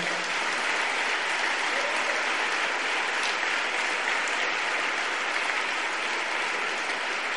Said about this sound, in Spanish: Y amén, damos un aplauso fuerte al Señor.